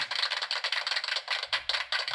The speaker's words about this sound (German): Deswegen gilt der nächste Applaus erstmal den Leuten, die bisher schon fleißig kommentieren.